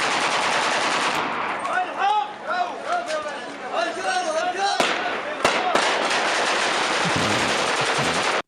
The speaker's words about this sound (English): got another guy with the no look technique for shooting birds.